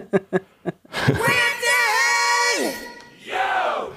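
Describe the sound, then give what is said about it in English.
A hockey-style crowd choir shouts a sustained chant with stacked harmonics, its pitch bending and dropping under an electronic pitch effect, preceded by a few sharp percussive hits and ending in another rising yell. “there you hear the pitch effect. Really kind of funky thing. Ah, uh, love that hockey choir.”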